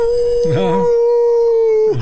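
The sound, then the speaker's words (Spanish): A man lets out a long, sustained howl in imitation of a dog, holding a steady pitch for nearly two seconds, loud, with a brief wavering voice at the start and end. “estoy aullando, pero de recuerdos.”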